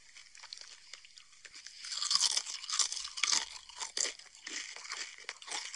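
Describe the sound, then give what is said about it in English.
A crunching sound effect: a steady run of crisp, bright crunches like someone biting into dry food, fairly loud, with no talking. “Sounds like tasty carbs. Oh no, that was just uh, some number crunching.”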